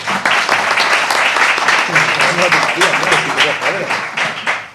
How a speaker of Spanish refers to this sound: voy pidiendo un aplauso, por favor,